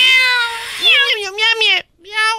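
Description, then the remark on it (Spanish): A voice imitates a cat's meowing up close: a long, drawn-out mew that wavers and rises in pitch, then a brief pause and a shorter, higher mew. “Así, así que los gatos gobiernan en Estambul.”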